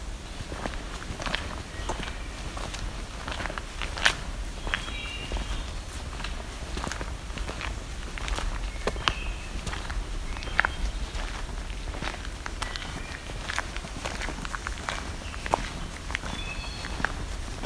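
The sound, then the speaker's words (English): Steady footsteps crunch along a dirt laneway with a green patch down the middle, in a swampy area surrounded by flooded forest, at an even walking pace. Brief bird chirps and calls sound over a constant low rumble; no one speaks. “Walking down what's basically looks like laneway. way, dirt road with a green patch down the middle.”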